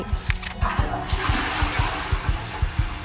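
A toilet flushes with a rushing, hissing swirl of water that builds after the first second, while a steady low thumping beat pulses underneath throughout. No one speaks.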